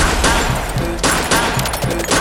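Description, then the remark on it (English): Rapid bursts of gunfire crackle loudly, repeated shots rattling in quick succession over a dense, noisy backdrop with no talking. “Boy, you get gunshot.”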